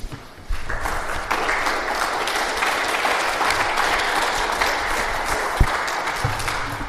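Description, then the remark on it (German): An audience at an exhibition breaks into sustained applause, starting abruptly and holding steady as a dense wash of clapping for several seconds, with no talking over it. “Kreativität, Willen und Einsatz haben letztendlich diese Ausstellung ermöglicht und einfach ein Danke dafür und dafür bitte einen Applaus.”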